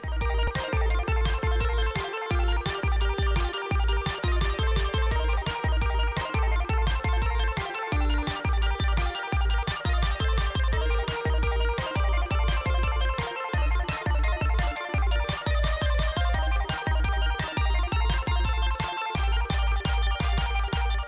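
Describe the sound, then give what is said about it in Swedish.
An upbeat intro jingle plays alone for about twenty seconds: bright, chiming synth melody over a steady, punchy beat, loud with no voices. “Men vi ska bortse från det nu och så tar vi och rullar gingen.”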